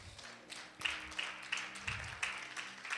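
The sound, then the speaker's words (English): A crowd claps in steady applause for a few seconds, a dense wash of hand claps with occasional sharper bursts, fairly soft, with no one speaking over it; the applause is for people who came up to the front to be prayed for. “Come on, guys, give them a round of applause tonight.”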